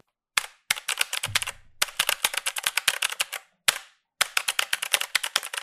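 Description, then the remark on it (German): Rapid, sharp clicking of the mechanical switches of a Razer BlackWidow V3 Pro keyboard, typed in quick bursts with short pauses between them; the keystrokes are crisp, with no one talking. “Besonders in Verbindung mit den mechanischen Switches ist das einfach nur ein geiles Spielgefühl.”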